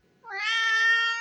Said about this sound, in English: that's my cat, you guys. He got my back.